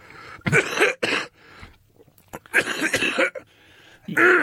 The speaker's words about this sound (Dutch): Je, hoest wel vies. Dat moet je niet doen.